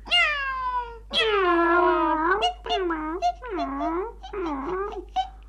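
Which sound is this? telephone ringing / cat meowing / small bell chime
cat meowing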